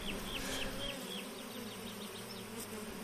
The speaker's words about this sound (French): C'est un grand bonheur pour l'apiculteur euh, d'ouvrir la ruche et de trouver une colonie qui marche bien